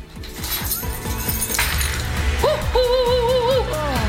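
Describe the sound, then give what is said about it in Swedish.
A bunch of keys is tossed onto a table, giving a loud metallic clatter and jangle, followed by a brief high, wavering tonal sound. “Nu kastar jag nycklarna på bordet för det betyder otur.”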